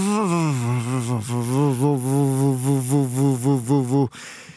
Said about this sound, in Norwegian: Kjenner du den lyden der? Ja. Den får kuken til å bli stor og svær. Det er lyden av gass, og det bråker og tuter.